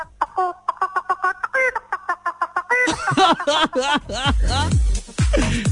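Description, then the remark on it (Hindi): A person imitates a chicken, a quick run of short, choppy clucks that breaks into louder, drawn-out squawking cackles, loud with no other talk. “कुत्ता हो गया एक और और ये मुर्गी मुर्गी मुगरी ठीक है मुगरी”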